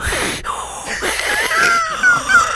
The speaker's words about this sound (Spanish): Hay, alguien que está respirando arriba del micrófono, pero hiperventilando.